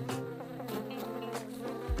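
A bee buzzes steadily in flight, beating its wings fast: a continuous droning hum with a rich, slightly wavering tone, fairly loud for about two seconds, with no one speaking.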